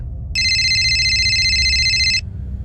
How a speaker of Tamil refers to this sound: என்னோடய phone ring ஆகுது இந்த நேரத்தில் யார் கால் பண்ணுறாங்கன்னு பார்த்தா வெறும் நம்பர் தான் வந்திருக்கு